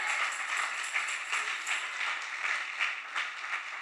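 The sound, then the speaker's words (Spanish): A church audience applauds together during a morning service, those whose lives God has changed, a steady dense wash of many hands clapping at moderate volume with no break for the whole stretch, and no voices rising above it. “Alguien que haya hecho Dios un cambio puede dar un aplauso en esta mañana.”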